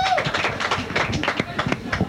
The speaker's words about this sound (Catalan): Un aplaudiment pels campions, no?